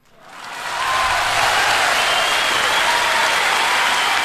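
Audience applause swells in over the first second, then holds as a steady, loud wash of dense clapping for several seconds, with no speech over it, welcoming the founder of the Keyue website (客悦网), the entrepreneur guest of the program.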